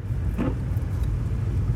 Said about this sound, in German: Wieso quietscht meine Scheibenwischer? Die sind neu!